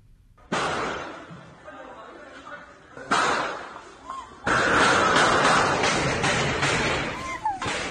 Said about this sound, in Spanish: Miren ustedes, lo que están escuchando son los balazos en medio de casi centenares de personas que estaban atiborrando esta clínica.